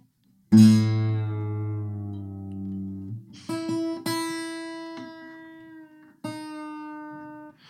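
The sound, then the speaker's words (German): A plucked guitar E string rings out, then is struck again several times as its pitch drops lower, each note sustaining with bright overtones while the string is tuned down a whole tone toward an open G tuning. No one speaks. “und die E-Seite einen ganz Ton runter. Ich mache das hier mal bei meiner, die, die tiefe E-Seite, die tiefste Seite lasse ich jetzt mal dran.”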